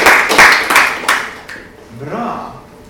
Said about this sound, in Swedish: Ska vi, ska vi göra applåd här nästa gång?